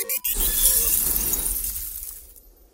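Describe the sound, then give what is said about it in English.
A spaceship crash landing on DKE Toy Planet after engine failure: one loud impact bursts into a bright shattering, glassy clatter over a deep rumble, then slowly fades away over a couple of seconds. No voices. “DOV2, we have engine failure. We must crash land on DKE Toy Planet.”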